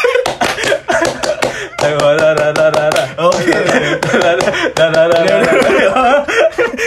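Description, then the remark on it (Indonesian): A group performs the Indonesian scout clap, sharp hand claps in a quick, patterned rhythm of bursts and pauses, loud throughout, with laughing and chattering voices mixed underneath. “Sebelumnya mau request sebelum baca ini tolong tepuk pramuka dulu biar ah, anjing dia nyuruh kasih dong kasih sekali aja gue rada lupa iya, tek tek tek oh iya, iya.”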